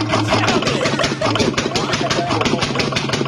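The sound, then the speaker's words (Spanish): A car engine that needs replacing idles roughly, with uneven knocking and rattling pulses, a steady low hum, and irregular clattering that never settles into a smooth rhythm. “¿Cuál es el problema que tiene este carro? Escucha todos los sonidos que está haciendo.”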